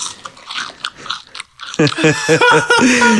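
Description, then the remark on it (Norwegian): Close, crunchy chewing fills the first half with irregular crackling bites, then a person starts talking loudly near the microphone. “Bare Du kan slenge mikrofonen litt til siden hvis du vil tygge veldig mye”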